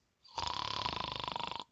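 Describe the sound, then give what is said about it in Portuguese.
A person imitates a snore, the Portuguese 'roncar' sound of a snorer or a rumbling car engine, with their voice: one loud, rattling buzz lasting just over a second, made of rapid fluttering pulses, with no other sounds around it. “Roncar é um som parecido com esse.”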